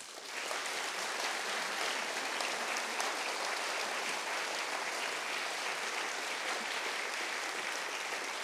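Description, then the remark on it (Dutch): Sustained applause from an audience thanking a female speaker after her talk and the debate that followed, a dense steady wash of many hands clapping at a consistent loudness for several seconds, with no talking over it. “Dus nogmaals een hartelijk applaus voor haar.”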